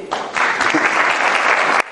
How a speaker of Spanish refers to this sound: Pero habéis aplaudido. ¿Podéis aplaudir un poquito, por favor?